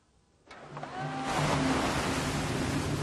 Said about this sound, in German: Das Meer ist heute stürmisch. Maria und die anderen beobachten die Wellen.